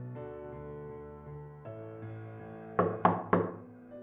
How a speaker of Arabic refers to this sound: فعلا جه تلات دقات على الباب تلات دقات زي ما أنا فاكرهم بالظبط